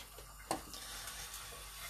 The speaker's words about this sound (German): Also, wie ich das gemacht habe, den äh, Topf nehmen, den Deckel querstellen und dann mit so einem, kleinen, so einem kleinen Schlitz reinmachen und dann einfach abgießen lassen. So. Und dann hast du die Kartoffeln quasi aus dem äh, Wasser befreit.